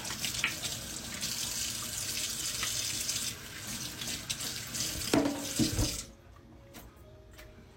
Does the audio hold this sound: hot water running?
yes